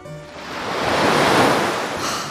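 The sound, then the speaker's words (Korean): Ocean surf rolls in at the sea outside a pension (guesthouse) in Gangwon-do, South Korea, with a steady, full wash of noise that swells toward the middle and eases off, the broad hiss of breaking waves, with no voices. “바다가 쫙 펼쳐졌고 펜션에는 럭셔리와 여유가 흘러넘쳤거든요.”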